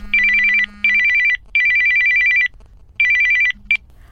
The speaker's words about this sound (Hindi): एक दिन अचानक उसका फोन आया